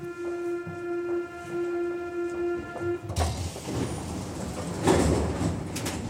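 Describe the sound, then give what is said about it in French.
A metro train at the Barbès-Rochechouart metro station: a steady humming, whining tone for a few seconds, then a sudden burst of rushing, clattering noise as the doors and train move, loud. “C'est un carrefour et quelques rues autour d'une station de métro, Barbès-Rochechouart.”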